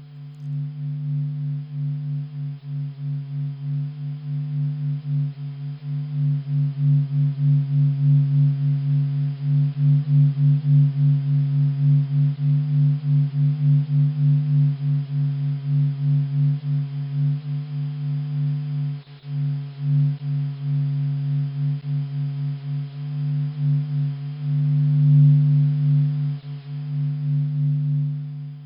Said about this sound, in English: This pulsing melody represents solar oscillations, or vibrations. Much like how geologists use seismic waves to image Earth's interior, solar scientists use these vibrations to image the sun's interior.